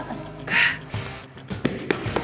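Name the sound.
footsteps running up stairs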